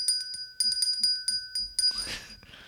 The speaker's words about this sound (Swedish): Emil ringer nu en liten klocka.